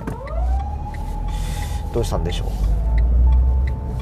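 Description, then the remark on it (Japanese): An unmarked police car's siren wails with a rising, then steady, tone, loud over a low traffic rumble, while a person speaks briefly over it. “ほらアメリカやってきたぞ覆面パトカーが登場ですね”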